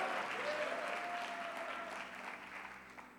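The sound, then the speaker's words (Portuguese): An audience at a church worship service claps together in dense, steady applause to the Lord, holding strong before easing off slightly toward the end, with a faint sustained vocal tone riding briefly over it. “Aplauda o Senhor e adoro.”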